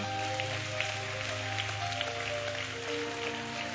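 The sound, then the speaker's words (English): An audience claps to give the Lord a hand clap, many hands blending into a dense, steady patter with no clear beat, while a sustained low musical tone hums underneath throughout. “And come on, give the Lord a hand clap.”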